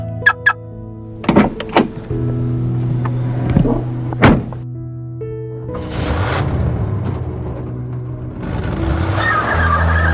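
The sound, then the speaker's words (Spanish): A car's doors thunk and mechanisms whir, then the engine hums steadily as the vehicle drives off, with rushing road noise rising over the last few seconds. No one speaks. “Oye, por cierto, no traje mi carro. ¿Crees que me puedas dar un aventón a mi casa?”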